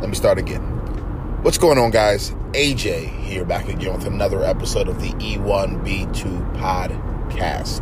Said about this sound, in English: Uh, if you guys hear any noise in the background, that is because I am driving my vehicle.